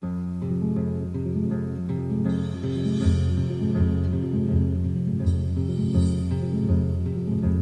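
A woman sings a slow, sustained melody over full instrumental accompaniment, the music steady and fairly loud throughout with a couple of brighter swells, and no one talking.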